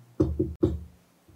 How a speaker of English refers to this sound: It's like this, it's just a sound. How do you know this is a knock?